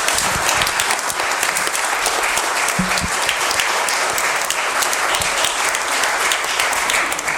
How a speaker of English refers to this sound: So I think we need to give a big round of applause for these two ladies.